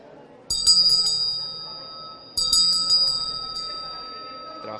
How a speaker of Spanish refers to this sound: Sería, por ejemplo, una campana de practicante, una campana de las que utilizan en, Nepal y en Tíbet como practicante. Se puede ver el acabado, es muy bueno y sobre todo la sonoridad.